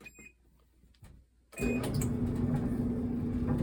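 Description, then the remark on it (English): A washing machine is started back up after a quiet moment, kicking in abruptly with a loud, steady mechanical rumble and a low humming drone that continues without any talking. “As I'm starting the laundry back up.”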